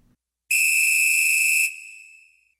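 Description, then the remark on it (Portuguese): A single long, shrill blast of a referee's whistle, steady and loud for just over a second before trailing off into a fading ring. No one speaks. “Dado o recado, apita o árbitro e vamos dar início ao meu, ao seu, ao nosso arquibancada.”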